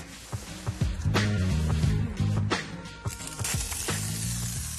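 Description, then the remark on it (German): A continuous hissing spray of polyurethane mounting foam, applied while sealing the roof of a new building in Stuttgart, steady and fairly loud, with brief sharper bursts and low droning tones running underneath. “Burak sprüht den Montageschaum auf.”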